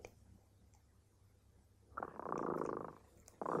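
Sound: cat purring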